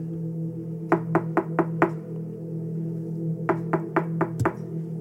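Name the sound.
knocking on a door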